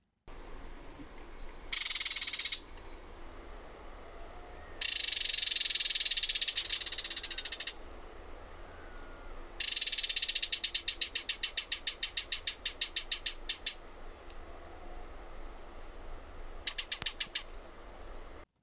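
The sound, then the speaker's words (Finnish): A barred warbler's dry rattling song, captured by a recorder left out unattended: several loud bursts, some a dense buzzy chatter, others a rapid train of distinct clicking notes, separated by pauses over a low steady rumble. “Et se, mutta työtähän siinä vaatii, koska sitten voi satoja tunteja, jos kaikki yöt tai päivät jätät, mutta, mutta tämä on tehty semmoinen sillä lailla tämä kirjokerturätinä.”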